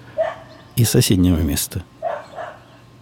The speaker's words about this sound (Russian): Ну вот, вы слышите шум соседей? Это не моя собака звучит. А это звучит собака